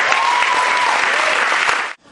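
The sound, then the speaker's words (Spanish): An audience at a conference claps steadily in a dense, even burst of applause lasting about two seconds, then stops abruptly. A faint whistle-like tone rises briefly through the middle of the clapping. “Un aplauso para”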